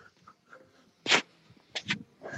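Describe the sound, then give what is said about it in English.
A dog named Mac, being called over for a treat to do a trick, makes a few short, breathy snorts or huffs, three quick bursts separated by brief pauses, fairly quiet with no talking. “We're gonna get a dog trick.”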